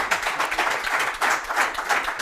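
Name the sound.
audience applause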